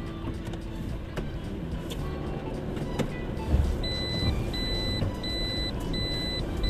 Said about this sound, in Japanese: 久しぶりにね、あのー、車を運転してるのでなんかね変な感じですね。